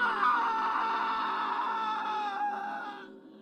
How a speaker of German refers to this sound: Sie wollten gerade wieder das Licht von außen anschalten, da drang ein schriller, grausamer Schrei aus dem Badezimmer.